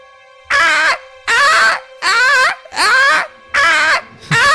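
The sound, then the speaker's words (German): A loud alarm going off throughout an entire building blares in repeated wailing bursts, about five in a row, each a warbling, scream-like cry over a steady underlying tone. “In dem kompletten Gebäude geht ein Alarm los. Er klingt wie das Schreien einer sehr, sehr ambitionierten, leidenden Frau.”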